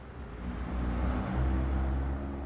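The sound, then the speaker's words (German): Steady roadway noise with a deep engine rumble as vehicles pass a house on a loud through-road in Glonn, Upper Bavaria, Germany. The continuous drone swells slightly midway, with no voices. “Das Haus liegt direkt an einer lauten Durchfahrtsstraße.”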